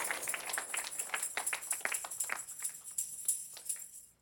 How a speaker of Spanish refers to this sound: Uh, dale un aplauso a papá.